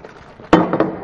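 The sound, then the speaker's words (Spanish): A sharp metallic clank of a cooking pot being set down, followed by two lighter knocks as it is shifted, against quiet background noise with no one talking. “Bien, pues lo que tenemos son dos ollas.”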